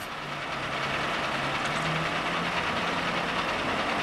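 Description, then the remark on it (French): A freight train carrying pine, birch or spruce logs to a large wood-industry complex in Finland rumbles past, a steady, dense wash of rolling noise with a low mechanical hum underneath, continuous and loud for the whole stretch, with no voices. “Les troncs de pin, de bouleau ou d'épicéa sont acheminés jusqu'à cet immense complexe industriel par train ou par camion.”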